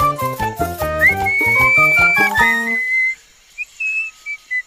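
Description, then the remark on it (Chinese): A high, bright whistled melody, whistled by Boots the monkey in Dora the Explorer, glides over a bouncy instrumental tune, then the music drops away and a few short whistled notes continue alone in quick, separate bursts. “嘿，谁在吹口哨？”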